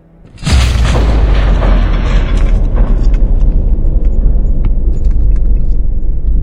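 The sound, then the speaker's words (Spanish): A nuclear explosion blast from a nuclear attack on a city erupts suddenly after a brief quiet moment, then becomes a loud, sustained, deep rumbling roar with crackling debris that continues steadily without fading. “El destello cegador iluminó el cielo, seguido por una onda expansiva que estremeció edificios y almas por igual.”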